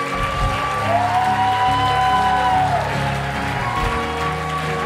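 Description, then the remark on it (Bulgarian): An audience applauds in a dense, steady wash of clapping that holds loud for about five seconds, with faint sustained tones running underneath. “О, ако ръкопляскаш, ръкопляскай, като че го даваш на Бог.”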